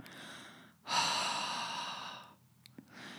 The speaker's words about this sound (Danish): Så havåndedrættet, det finder du ved at åbne munden, stille og roligt give slip på kæben, og så ånder du ud på samme måde, som hvis du skulle ånde på et par solbriller for eksempel for at puste dem. Så det lyder sådan her.